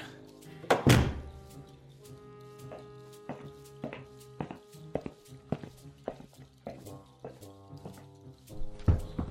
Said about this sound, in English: Rowan thumped down the stairs and plopped himself in front of Siegfried.